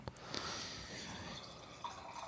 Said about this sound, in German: Boah, halt da hast du jetzt aber gut eingeschenkt.